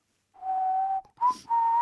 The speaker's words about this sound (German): Ich bin nicht der beste Pfeifer, aber ich kann zumindest so ein bisschen pfeifen.